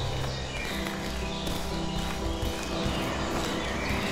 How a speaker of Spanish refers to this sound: te pido que avances por este bosque, que vayas avanzando y observando los árboles, que observes las hojas. Estas hojas secas por donde caminas. Que escuches incluso tus pasos